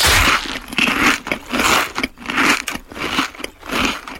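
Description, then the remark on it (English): Loud crunching of fried potato chips being chewed, about eight crisp crackly bites in a steady rhythm, each a dry brittle burst with brief pauses between. “y hace crunch.”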